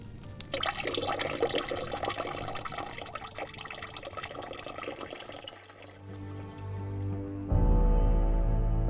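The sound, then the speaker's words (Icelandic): A loud rush of gushing, splashing water dousing a fire pours steadily for several seconds, then thins out as a steady low droning hum takes over and swells louder at the end. No one speaks. “En nautið meig þá öllu vatninu sem það drakk úr fljótinu og slökti bálið.”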